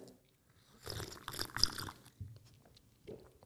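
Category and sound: food or drink, slurping a drink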